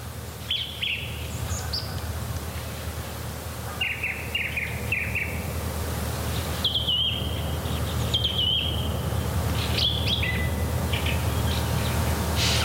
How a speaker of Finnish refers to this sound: Tämä oli tosiaan hieno hetki, kun se tuntui siltä, että yö vaihtui hetkessä aamuksi, kun laulurasta alkoi laulaa ja, ja yhtä, yhtäkkiä vain tietynä hetkenä se aloitti. Tämä hieno tämä laulurastaan ääni.